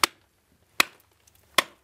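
Three sharp, evenly spaced strikes of a bronze pick chipping at salt crystals, each a bright, hard crack with a brief ringing tail, and faint crumbling ticks between blows.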